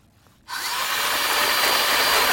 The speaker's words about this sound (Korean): 이게 저 지금 수박 뭐 이런 거 과일 넣고서는 믹서기로 가는 소리입니다. 믹서기 소리.